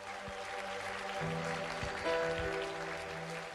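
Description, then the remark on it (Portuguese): A crowd applauds the name of Jesus steadily throughout, a dense wash of many hands clapping at once, with sustained musical tones, likely a keyboard, playing underneath. “Dá para aplaudir o nome de Jesus?”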